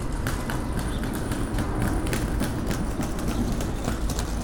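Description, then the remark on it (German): Rolling suitcases of passing people clatter by at Pankow station on a dull March morning, their wheels ticking in a quick, steady rhythm over a rumbling wash of outdoor background noise. “Menschen mit Rollkoffern klappern an mir vorbei keine Ahnung, wohin sie unterwegs sind.”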